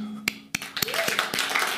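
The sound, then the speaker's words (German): A few scattered claps that quickly thicken into a short burst of crowd applause, moderately loud, with a faint tone running underneath. The applause is for the people working to make everything function. “Lass uns bitte mal ganz kurz einen Applaus geben an die Leute, die hier sich wirklich Mühe geben, dass hier alles funktioniert.”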